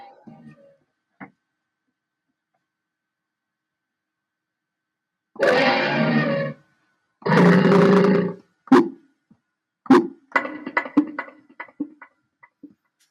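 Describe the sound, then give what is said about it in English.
A Yamaha keyboard's animal roar sound effect: two long, loud, gritty roars in a row, followed by several shorter snarling bursts and growls, with a brief quiet stretch beforehand and no talking. “This is just a Yamaha keyboard, so it's not anything wonderful.”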